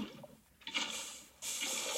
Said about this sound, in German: Ich habe aus Versehen mega viel von meinem Wasser verschüttet, also von meiner Lava.